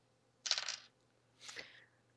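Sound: dice being rolled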